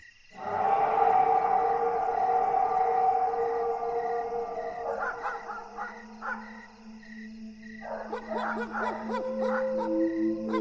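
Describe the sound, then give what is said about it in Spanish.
A loud, drawn-out monstrous roar, part anguished scream and part wolf howl, holds for several seconds, then breaks into shorter warbling cries over a low steady drone. “aquel rugido era como un grito desgarrador de una persona, combinado con el aullido de un lobo.”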